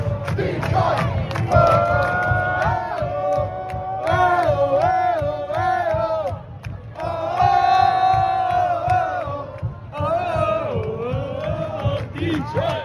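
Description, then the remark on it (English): A packed crowd of hundreds of people chants loudly in unison, voices rising and falling in sustained, melodic phrases over a dense roar of cheering, continuous throughout, with drums and megaphones. “and a whole I don't know hundreds of people in there crammed in.”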